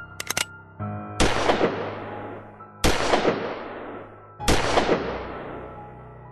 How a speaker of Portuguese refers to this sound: Ambos apontam revólveres um para o outro. A troca de tiros acontece e os três acabam por falecer no local.